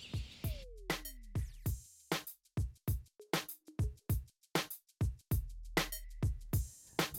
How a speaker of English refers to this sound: play us out with some beats.